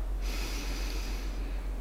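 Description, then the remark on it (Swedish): A long, steady inhale drawn through the nose during a pelvic floor breathing exercise, a soft breathy hiss that starts abruptly and continues evenly for well over a second, with no talking. “Så ni andas in och slappnar av.”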